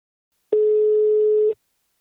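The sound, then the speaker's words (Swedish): A single steady telephone tone of an outgoing call to the company Invacare sounds for about one second, clear, starting and stopping abruptly, with silence around it and no voices. “Nu tar vi en kort paus och ringer upp min samarbetspartner Invacare.”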